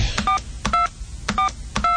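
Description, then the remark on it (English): Four short two-note telephone keypad tones, dialing the IAMS Company customer service number and a PIN code, beep in an uneven rhythm, each preceded by a soft button click, with no talking over them. “Dialing in the number and uh, let's see the PIN code,”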